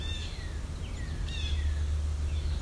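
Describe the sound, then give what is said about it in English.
Several faint, sliding bird calls drift in over a steady low rumble, a yellow-billed cuckoo calling in short descending notes with no voices present. “But I got a good recording of the adult in addition to the young one, which I'm thinking were yellow billed cuckoos.”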